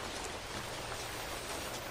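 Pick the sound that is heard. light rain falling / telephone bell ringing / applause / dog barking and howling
light rain falling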